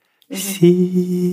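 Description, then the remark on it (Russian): A voice makes a sustained, thin humming squeak, imitating the faint, high vibrating sound of one's own spinal nerves. The tone holds steadily for about a second, shifting pitch slightly partway through, fairly loud with no speech. “он такой, как тонкий звук вот этих нервов, которые тихонечко вибрируют, да, такой высокий, как такой писк такой.”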